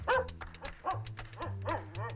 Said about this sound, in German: Nein, ich meine den Hund. Der hört sich gut an.